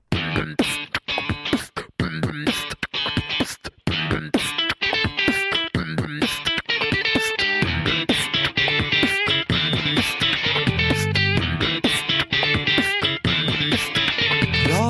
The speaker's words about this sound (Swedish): ni andra får lyssna på en låt så länge.